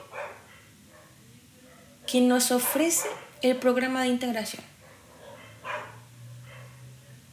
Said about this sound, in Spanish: Si escuchan a un perro, lo siento, pero es que no tenía tiempo para llegar a un lugar para grabar con más silencio, porque lo que necesitaba decir, necesitaba decirlo en el momento y no tenía otro lugar para hacerlo.